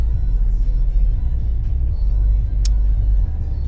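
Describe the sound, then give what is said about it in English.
A car engine idles steadily with the heater running, parked outside Pure Fitness, a deep continuous low rumble with a faint hum above it and one brief sharp click partway through. “We got the car running, the heat keeping me warm right now shout out to the seat warmer as well.”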